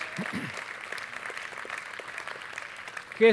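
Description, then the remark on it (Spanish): An audience applauds the Lord during a sermon, steadily for about three seconds: a dense, even wash of clapping at moderate volume, with a brief murmur of voices near the start. “Déle un aplauso al Señor, gloria a Dios.”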